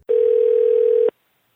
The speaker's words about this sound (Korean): 예, 그래서 한번 전화로 어, 연결을 해보도록 하겠습니다.